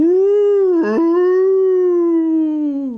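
A loud wolf howl, played as a sound effect, holds one long, steady wavering note for about three seconds, with a brief catch near the start, then tapers off. No one speaks.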